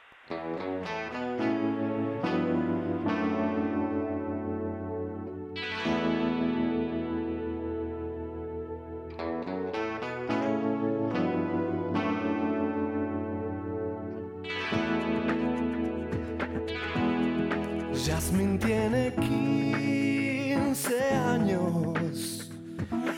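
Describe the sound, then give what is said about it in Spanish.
An instrumental song intro: loud, effects-heavy distorted guitar chords ring out and sustain in repeated phrases, growing busier and more layered with swirling textures toward the end, with no singing yet. “Eh, gracias a esta hoy, como te decía, tengo un recuerdo que sí queda, esta canción,”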